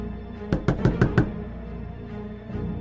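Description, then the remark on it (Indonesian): Five quick, evenly spaced, sharp knocks on a door, followed by quiet with no voices. “Kami pun tidur dengan nyenyak sampai saya terbangun oleh suara ketukan di pintu.”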